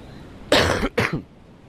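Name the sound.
coughing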